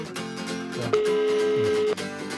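A single steady phone tone sounds for about a second as a phone call is placed, clear and mid-pitched, over a continuous musical background bed with no talking.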